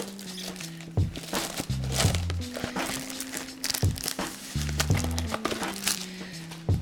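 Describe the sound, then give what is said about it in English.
Brown packing paper crinkles and crumples in a steady stream of irregular crackles and soft thumps, with a low background hum running underneath and no voices. “They just shoved it in the box and put like some brown paper.”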